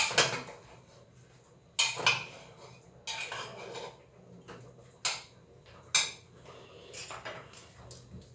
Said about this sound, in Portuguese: Eu frito a carne, não. Eu eu praticamente selo a carne aqui dentro da panela de pressão. Panela de pressão, carne em cubos grandes e óleo.